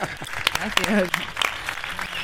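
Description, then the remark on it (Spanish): A small group claps in quick, uneven bursts of sharp hand claps, with voices calling out and chatting over the applause throughout. “Un aplauso para”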